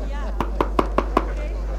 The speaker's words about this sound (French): On frappe à la porte.